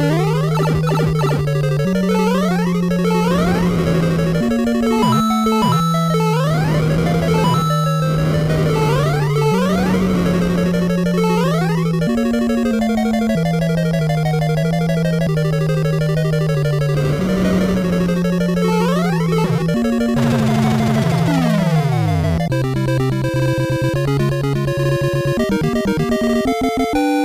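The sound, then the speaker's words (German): A loud, busy fanfare plays on its own, with a bass line stepping between held notes and bright tones that repeatedly sweep upward, sounding dense and somewhat chaotic throughout. “Die Fanfare ist jetzt eigentlich ganz passend, weil äh, ich bin jetzt mit den Games fertig für den Podcast.”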